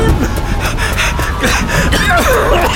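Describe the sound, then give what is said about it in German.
Rapid, ragged gasping and panting for breath from someone running amid ash and heat, repeated quick inhales and exhales with breathy pitch sweeps, loud and continuous over a dense rumbling background with no clear speech. “Ich bekomme kaum Luft.”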